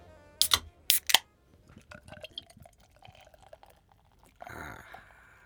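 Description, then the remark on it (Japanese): Two sharp cracks of a can of Yebisu beer being opened, followed by the beer being poured into a glass, a fizzy gurgling stream with a final louder rush of foaming liquid. “まずはですね、ゲストの方とエビスビールで乾杯ということで、はい、ありがとうございます”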